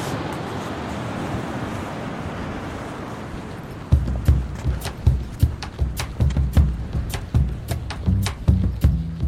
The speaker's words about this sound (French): C'est beau, hein suis euh, ravi, d'amener le bruit des vagues à, votre podcast. Bah oui, on l'avait pas eu encore.